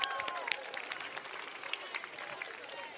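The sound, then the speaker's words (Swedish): Audience applause: a steady patter of many hands clapping together, moderately loud and sustained for a few seconds, with no talking. “Applåd. Applåd.”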